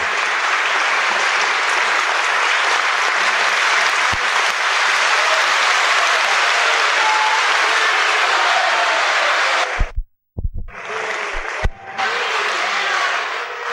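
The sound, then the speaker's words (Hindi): A large audience bursts into sustained, dense applause that carries on steadily, then briefly cuts out near the end before the clapping resumes. “बजाओ ताली देखते क्या”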